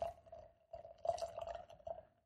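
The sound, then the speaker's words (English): Imperial stout beer glugs and splashes as it is poured into a glass, a steady liquid stream with bubbly surges, fairly quiet, lasting about two seconds. “Let's pour it.”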